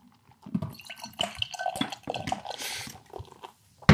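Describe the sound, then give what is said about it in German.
Ordinary party beer with added carbonation pours into a glass with gurgling, splashing liquid sounds and a fizzy hiss building up midway, ending with a soft thump, fairly quiet, no talking. “So klingt es beim Eingießen.”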